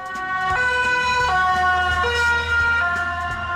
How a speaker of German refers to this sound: Ein Krankenwagen kommt mit Blaulicht und Martinshorn angerast, fährt vorbei und dann?